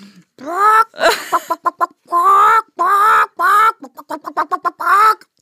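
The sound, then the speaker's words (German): A person loudly imitates a chicken, mixing drawn-out, strained squawks with bursts of quick, choppy clucks in an uneven rhythm, with no talking. “Hühner, Hühner kann ich ganz gut Mach nachmachen. Mach mal ein Huhn.”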